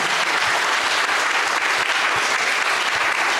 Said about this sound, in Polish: Brawa dla naszych gości. Bardzo pięknie Wam dziękuję.